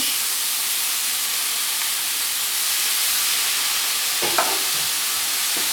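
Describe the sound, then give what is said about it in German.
A few cans of champignon mushrooms, just added to a hot frying pan, sizzle loudly, a steady, dense crackling hiss throughout with a brief clatter of stirring near the end. No one speaks. “Zisch, zisch.”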